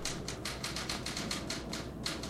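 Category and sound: machine, typewriter keys being struck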